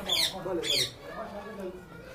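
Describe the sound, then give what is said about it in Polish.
A parrot in a cage in front of an entrance lets out two quick, harsh, shrill squawks in close succession, while muffled voices murmur throughout. “W klatce przed wejściem papuga.”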